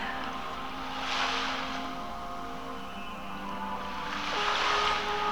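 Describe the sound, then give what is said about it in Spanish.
Ocean waves of the sea swell and wash in twice, soft and steady, over a calm sustained musical drone for a sunset meditation, with no one speaking. “Meditacion astral con el mar con el atardecer”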